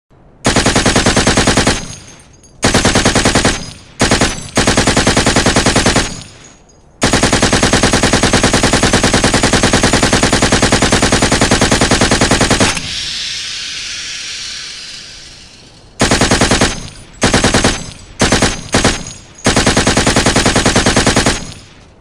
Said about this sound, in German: Marcel, der Franzose, feuert eine Salve von MG5 durch die Eingangstür und in die Fenster, die den Hauptraum überblicken